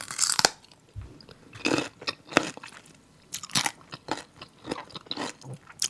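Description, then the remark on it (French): Crisp crunching and chewing from a YouTube ASMR video of a person eating, with repeated sharp bites in an irregular rhythm, each crunch bright and crackly, separated by short quiet pauses. No talking. “le, bruit que fait cette personne en mangeant doit vous apporter une espèce de bien-être”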